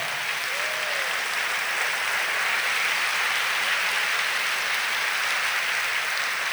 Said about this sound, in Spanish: Si va a aplaudir, hágalo con fuerza.